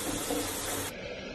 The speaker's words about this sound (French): Le gars, il était à l'hôpital et comme il s'ennuyait, il a enregistré des bruits. Les bip-bip des instruments de mesure, le bruit de la douche,